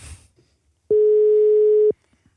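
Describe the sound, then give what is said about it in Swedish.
A single steady electronic ringback tone of an outgoing phone call to the coach of Skövde HF, a flat mid-pitched beep lasting about a second, loud and alone after a brief bit of faint noise. “Ska jag prova ringa”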